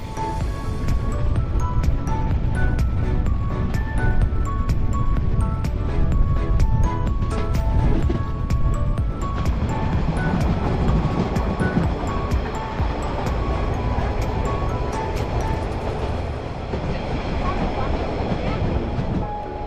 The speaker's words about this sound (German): Die Harzer Schmalspurbahn ist eine Legende, während Groß und Klein anhält, staunt und winkt. Schnaufend und pfeifend geht es unermüdlich Richtung Rockengipfel. Nächster Halt Höchster Bahnhof Deutschlands. Dampflok fahren. Kann es was Schöneres geben?